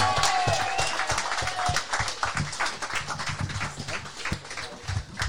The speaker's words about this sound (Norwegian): Folkens, vi gir en skikkelig applaus